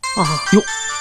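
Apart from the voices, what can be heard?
phone ringtone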